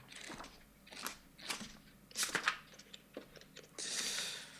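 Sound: flipping through book pages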